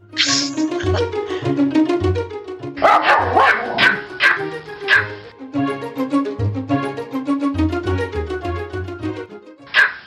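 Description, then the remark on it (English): A small Pomeranian dog named Hedwig yaps rapidly and repeatedly, sharp high-pitched barks in quick bursts with brief whiny yips, continuing for about ten seconds with no one speaking. “And now it's time to give a shout out and a call to our friendly Pomeranian, Hedwig.”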